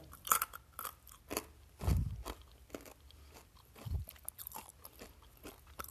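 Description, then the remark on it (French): Crunchy chewing of peanuts from a jar, with repeated crisp crunches and soft mouth sounds in an irregular rhythm, a couple of heavier bites landing with low thumps. No talking. “Donc, en fait, euh, je suis encore en train de, manger ces bonnes petites pinottes-là.”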